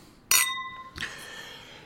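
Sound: wine glasses clinking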